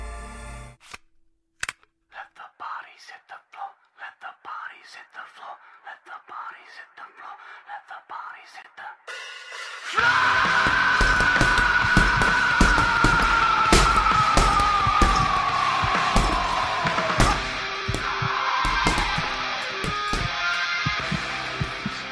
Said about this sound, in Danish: Her ved han, der er en opsat boksebold. Han ved, der kun er én løsning lige nu. Hård musik og træning. Så han sætter musikken på og bokser løs.